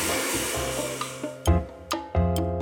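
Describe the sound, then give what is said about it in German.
A hair dryer blows with a steady airy whoosh and motor hum, then a series of clunky thumps and bumps interrupt it near the end. “Ein Föhn. Mit einem Föhn?”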